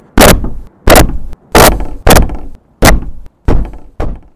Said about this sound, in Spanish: Cuando bajé, mi madre y mi hermana estaban abrazadas, con una horrible expresión de terror en sus rostros, y totalmente atemorizadas por aquel violento golpeteo de la puerta.